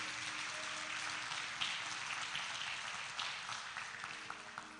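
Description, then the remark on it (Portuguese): An audience applauds in a steady, dense wash of clapping that holds at an even level throughout, with a few sharper claps standing out; no one speaks over it. “pode aplaudir se você entende.”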